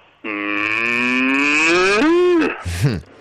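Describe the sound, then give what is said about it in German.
A person imitates a cow with one long, steady moo lasting about two seconds, its pitch rising near the end before trailing off into a short, wavering vocal tail. “Ah, das war, das war eine Kuh gewesen.”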